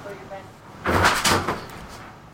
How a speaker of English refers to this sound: I don't know where the cat just fell, but the cat just fell. Are you okay, kitty? She's running away. She fell down.